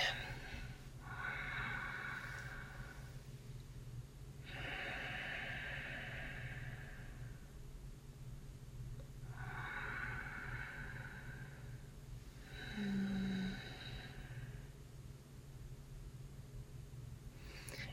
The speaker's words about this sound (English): let's take a nice deep breath in through our nose and then out through our nose okay so just nasal breathing just allow your whole body to relax here